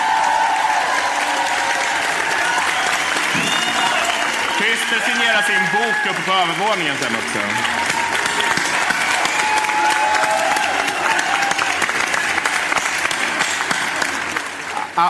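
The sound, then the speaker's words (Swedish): A live audience applauds steadily and loudly for the whole stretch at the end of a show, a dense wash of clapping with a few whoops, while a man speaks over it through a microphone. “Ge en varm applåd till Jonathan Unge, Christer Lundberg, Ina Lundström.”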